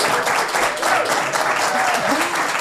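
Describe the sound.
A live audience in a hall with a chandelier applauds steadily and fairly loudly at a first recording before an audience, dense clapping filling the whole moment, with a few voices calling out and cheering underneath.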